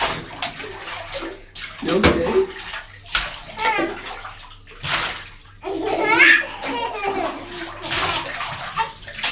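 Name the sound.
water splashing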